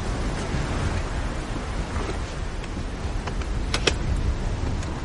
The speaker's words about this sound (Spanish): Blanca abre el maletero del coche. Su padre baja del vehículo.